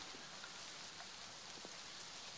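Steady, soft hiss of rain falling, with a few faint droplet ticks scattered through it, fairly quiet and constant with no voices.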